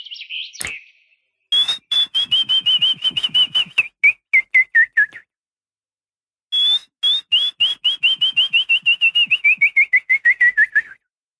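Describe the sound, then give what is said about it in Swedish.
A person whistles an imitation of willow warbler song: two clear, descending phrases of quick, evenly spaced notes that drift gently downward, separated by a brief pause, fairly loud. “Ungefär så här om jag skulle försöka mig på att vissla lövsångaren då.”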